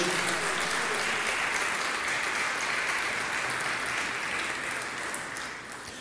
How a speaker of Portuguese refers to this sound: Dê um aplauso ao Senhor com glória a Deus.